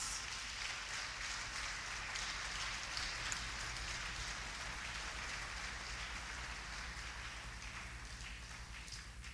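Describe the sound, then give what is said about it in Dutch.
A crowd applauds steadily for several seconds, a dense, even wash of many hands clapping at once with no one speaking, holding at a constant level before easing slightly at the end. “Come on, we kunnen hem een applaus geven.”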